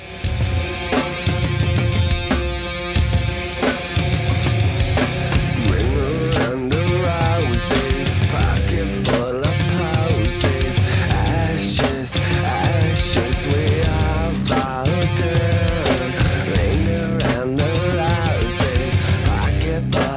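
A loud rock band plays a cover of the nursery rhyme "Ring a Ring a Roses", with driving drums, bass and bright guitars filling the sound steadily for about twenty seconds, with no talking.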